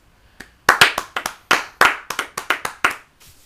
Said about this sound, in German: Ich glaube, dafür kann man auch nochmal kurz einen Applaus geben.